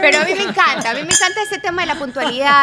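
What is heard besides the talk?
glasses clinking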